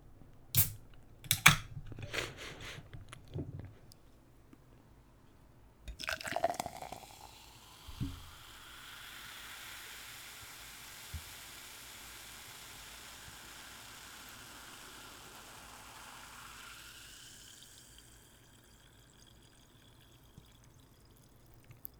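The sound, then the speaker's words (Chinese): A few sharp clicks of handling, a quick hissing burst, then a steady, soft crackle of bubbles from a Vitalon P (维他露 P) fizzy drink that continues on its own for about ten seconds before thinning out. “听到这个气泡声，希望能带给你们一些清凉的感觉啊！”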